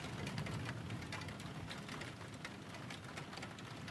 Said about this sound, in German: und regnet auch.